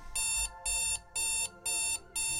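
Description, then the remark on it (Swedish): An alarm clock set for 07:00 rings in a steady pattern of five loud, bright electronic beeps, each about a third of a second long with short gaps between, with no talking. “Vad har du ställt larmet på?”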